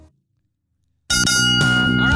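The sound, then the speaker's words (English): After a moment of silence, a bell rings loudly twice in quick succession, the second strike landing before the first has faded, leaving a bright, sustained metallic tone. “two bells and all is well.”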